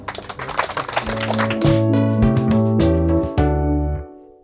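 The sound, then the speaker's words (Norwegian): A short burst of crackly applause for a guest who shared their story fills the opening second or so, then fades as bright, steady music with sustained tones takes over and plays to the end. “Eh, jeg syns du fortjener en applaus for det.”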